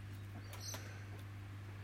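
Magpies singing faintly in Australia, a few short chirps and warbles near the middle over a steady low electrical hum, with no voices.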